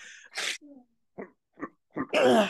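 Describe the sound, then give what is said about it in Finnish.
A contented dog with a full belly, whose hearing is no longer good, grunts and snuffles: a broad snort followed by three short, soft grunts, then a louder breathy snuffling burst at the end. “Mutta tämmöinen on tyytyväinen massu täynnä mm. koiran.”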